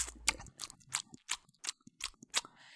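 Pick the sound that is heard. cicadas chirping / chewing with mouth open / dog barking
chewing with mouth open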